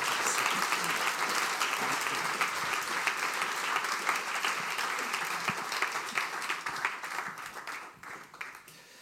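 Sustained audience applause, a dense steady clatter of many hands clapping that holds for several seconds before thinning out slightly toward the end.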